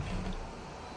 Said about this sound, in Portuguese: Isso é moto, é uma moto que está mais ou menos. Né? Ixi, essa moto não está com nada. E não vai embora essa desgraça.